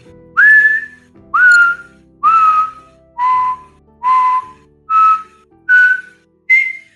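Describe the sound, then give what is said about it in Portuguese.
A sequence of eight clear, resonant musical notes from a puzzle, sounding again after a stone is placed in it, each lasting about half a second and separated by brief gaps, shifting in pitch. The tones are whistle-like and fairly loud, with no talking. “Mas, uh, no que vocês colocam a rocha pedra ali, o, a, as notas voltam a ressoar.”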